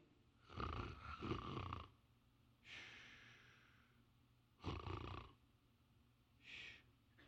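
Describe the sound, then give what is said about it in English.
A voice imitates the heavy sleep breathing of a sleeping man: two loud, rasping snores alternate with softer breathy exhales, repeating in a slow rhythm with no talking. “Can't you just hear him breathing heavy?”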